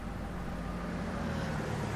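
A car engine rumbles steadily, a low continuous drone with faint road hiss as the car comes around a corner, with no voices.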